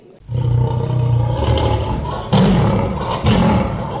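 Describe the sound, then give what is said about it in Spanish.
A lion roars loudly, a deep rumbling growl held for several seconds that swells into two stronger bursts, with no talking over it. “Bueno, los leones sienten eso. Se cebaron.”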